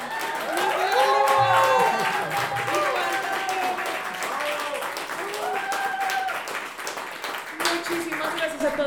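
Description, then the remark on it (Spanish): Steady audience applause fills the whole stretch, a dense wash of clapping hands at fairly constant loudness, with cheering voices and shouts rising over it throughout. “bueno, por favor, un aplauso para.”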